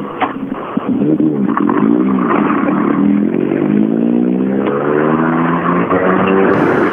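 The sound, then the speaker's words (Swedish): Loud engines of tuned race cars rev and drone continuously, their pitch swooping up and down as they accelerate past, with no voices. “Ja, och där, därmed då så eh, kommer det lite mer trimmade bilar.”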